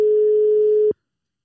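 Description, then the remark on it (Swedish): A single steady telephone ringing tone sounds loud for just under a second as a test call is placed, then cuts off abruptly into silence. No one speaks. “vi testar att ringa så man svarar.”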